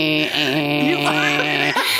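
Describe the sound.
A voice imitates an electric toothbrush with a steady, nasal buzzing hum held for about two seconds, its pitch wavering slightly midway before settling, fairly loud and alone.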